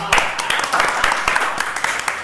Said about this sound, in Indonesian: jadi tepuk tangan dong